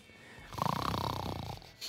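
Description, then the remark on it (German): A voice imitates one long, rattling snore, fairly loud, buzzing for about a second before trailing off, with no talking around it. “Siehst du, er schnarcht schon wieder.”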